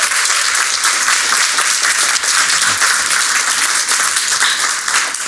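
Sustained audience applause, a dense wash of many hands clapping at a steady, loud level throughout, with no voices standing out above it.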